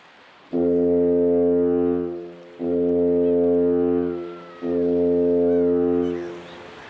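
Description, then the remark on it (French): A lighthouse foghorn sounds three long, deep, steady blasts in a row, each separated by a brief pause, loud and resonant with a faint ambient background and no voices. “Puis ça recommençait le même trois sons. Puis un autre phare, c'était un autre code complètement différent.”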